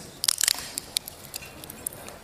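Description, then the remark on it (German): Nuts being cracked: a quick burst of sharp, brittle crunches early on, then a few scattered single snaps and crackles. Fairly quiet, with no talking. “Die Bibel, ich knacke heute hier ein paar Nüsse.”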